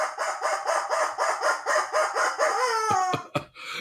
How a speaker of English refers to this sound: The rubber chicken says.